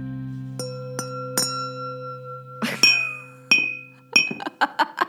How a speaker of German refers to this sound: Habt ihr neue, habt ihr neue Weingläser investiert? Ich habe, äh, hier liegt so ein kleiner Hammer auf dem Schreibtisch. Was? Und mit dem habe ich gegen, gegen das gute Riedel-Weinglas